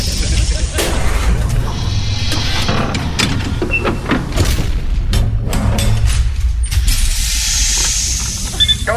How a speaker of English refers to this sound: Now, excuse me while I close the giant lead line safety door.